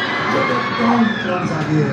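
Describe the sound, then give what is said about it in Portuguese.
A crowd of people shouts and cheers together at a play in a Brazil football match, a loud, sustained burst of voices overlapping excitedly. “É da hora que a cada lance qualquer coisa, todo mundo grita.”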